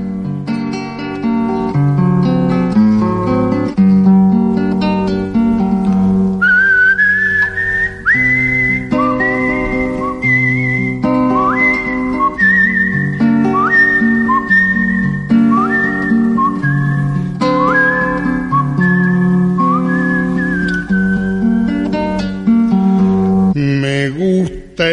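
A melodic whistled tune opens a folk song by an Argentine singer-songwriter, its clear high line gliding and sliding between notes over steady acoustic guitar accompaniment, sustained at a strong level throughout with no voices.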